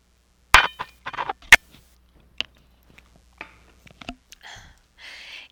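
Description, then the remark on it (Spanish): Two bright glassy clinks ring out, followed by small taps and soft gulping sips as someone drinks water from a glass, with no talking. “Voy a tomar agua.”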